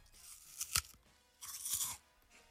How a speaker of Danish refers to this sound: Det er så sprødt, det æble her. Og det smager lige så godt, som det lyder.